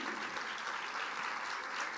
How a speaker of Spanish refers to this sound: Dele un aplauso de alabanza a nuestro Dios. Amén.